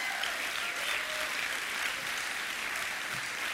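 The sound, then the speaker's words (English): Steady applause from an audience, a dense wash of many hands clapping at an even level throughout, with no voices breaking through. “I am taking note of who's not clapping here.”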